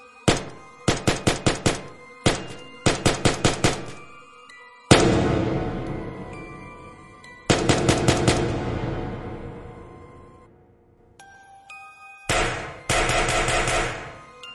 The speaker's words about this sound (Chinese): 正当高亮准备盘问黄然他们三个的时候，上面的哨所里突然传来了一阵枪声。